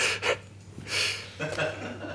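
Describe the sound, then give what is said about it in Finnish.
Heavy, breathy panting close to the microphone: three loud, rough exhalations in an uneven rhythm, each a hissing rush of air, with no words spoken. “Läähättään siihen.”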